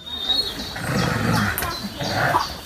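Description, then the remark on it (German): Two wolves growl and snarl over each other in rough bursts while excitedly greeting wolf researcher Friederike Range, settling who greets her first, their voices rising into excited whines and yips, with a faint high tone hanging in the background. “Wir hören hier zwei Wölfe, die sich offensichtlich freuen, Friederike Range zu sehen.”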